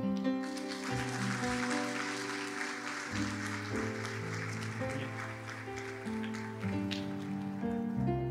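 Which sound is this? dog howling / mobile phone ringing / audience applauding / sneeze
audience applauding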